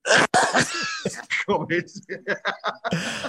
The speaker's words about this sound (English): God, just coughed up a lung, haven't you?